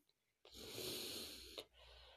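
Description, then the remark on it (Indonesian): A deep, airy breath drawn in for about a second, then a softer breath let out, clear with no talking. “Tarik nafas dan ikhlaskan yang ada di dada.”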